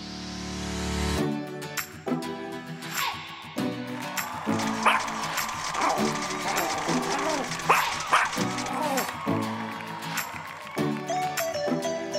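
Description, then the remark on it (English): A bouncy musical segment jingle with dog barks popping up several times over the tune, short bright woofs landing in a loose rhythm across the music, fairly loud. “Celebrity Pup of the Week. Woof woof. Woof woof.”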